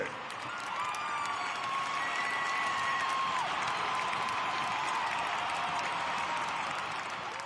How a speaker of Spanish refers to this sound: Señoras y señores, recibamos con un fuerte aplauso a ….